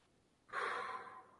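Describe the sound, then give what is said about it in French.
A single deep, airy breath during a guided relaxation exercise, inhaled through the nose and exhaled through the mouth, starting abruptly and slowly fading over about a second, with no voices around it. “On inspire avec le nez, on expire avec la bouche.”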